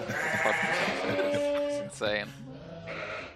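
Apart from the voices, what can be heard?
sheep bleating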